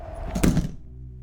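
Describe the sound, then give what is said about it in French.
An airplane door is gently swung shut with a soft, muffled thunk, a single impact that fades into a low, steady mechanical hum. No one speaks. “remonte dans l'avion et referme doucement la porte.”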